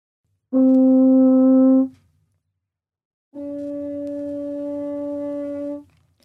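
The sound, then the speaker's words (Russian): A French horn, played without pressing the valves, holds a bright, full open note, then after a short pause sustains a similar note with the hand in the bell, giving a duller, more muffled tone. Solo, with no talking. “Так, а мы играем тон с рукой без руки, не нажимая клапаны.”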